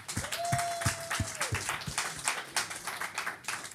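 A short burst of applause, a dense, steady clatter of many hands clapping for about four seconds, with a brief sustained whistle-like tone near the start.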